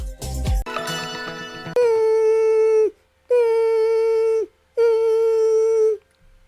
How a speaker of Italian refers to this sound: Ma cos'è? Sono le zanzare che piangono, non passano brisa?